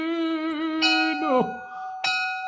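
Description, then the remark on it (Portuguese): A bell rings out twice, each strike followed by a bright, sustained metallic tone that lingers and decays. The sound is fairly loud, with no talking. “Simbora, toca o sino.”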